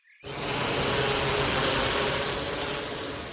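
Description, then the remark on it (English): A remote-controlled drone plane flies, its steady, high-pitched motor whine mixed with a broad rushing hum that starts abruptly and holds loud and even throughout. “So, that remote controlled plane of yours is actually a type of drone.”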